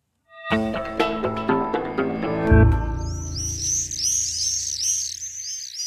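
A short run of bright musical notes fades out, then shrill, high bird calls of swifts or nightingales take over, a steady flurry of quick chirps and sweeping screeches.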